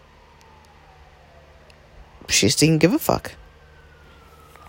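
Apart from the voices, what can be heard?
distant emergency vehicle siren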